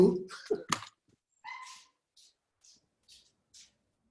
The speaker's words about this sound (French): Attends, y bougez pas, il y a, ma chienne qui n'arrête pas d'aboyer. elle est toute petite comme ça, mais elle est redoutable,